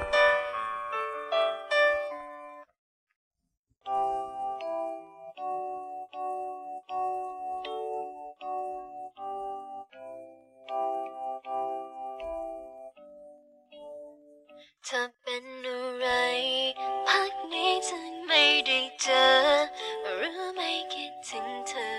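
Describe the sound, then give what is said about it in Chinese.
A Thai pop song plays as a phone ringtone: a bright, chiming instrumental melody with a brief pause early on, then a fuller, louder arrangement swells in. No one speaks. “那么今天给大家推荐一首泰语歌，是我手机的铃声。”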